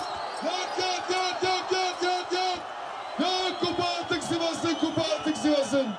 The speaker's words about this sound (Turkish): Sivaslıların kupa coşkusu şarkılarla, tezahüratlarla, meşalelerle oldu. Kutlamalar gece geç saatlere dek sürdü.